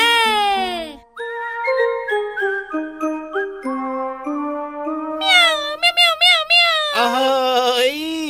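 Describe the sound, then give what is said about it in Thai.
A voice imitates a cat meowing: one drawn-out, falling meow, then several quick wavering mews near the end. Steady melodic tones play in between, clear. “เสียงแบบนี้จริงหรือเปล่า นี่นี่นี่นี่ไปฟังเสียงแบบออริจินอลดีกว่า ว่าเจ้าแมวออริจินนี่มันคืออะไร”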